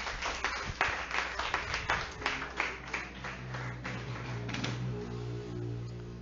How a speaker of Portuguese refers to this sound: Aplauda ao Senhor, pode se assentar.